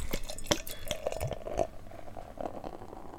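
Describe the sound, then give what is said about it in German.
Beer pours into a glass in Redmar, a bubbly, gurgling stream with small splashes and fizz that tapers off into a soft hiss as the glass fills. “Ich werde ja immer gefragt, ob wir das irgendwie einspielen oder so, diese Öffnungsgeräusche und die Einfüllgeräusche.”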